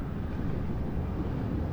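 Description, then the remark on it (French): A steady, deep rumble of sea waves, slowed by the Mistral wind blowing offshore from land, rolls on continuously at night beneath a constant wash of wind, a low drumroll-like roar with no breaks and no voices. “Et c'est ce ralentissement qui fait avec la, la pression du vent cette rumeur de basse, de grave, espèce de roulement de tambour continu.”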